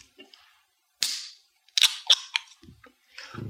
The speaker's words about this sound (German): So, die Dose ist offen.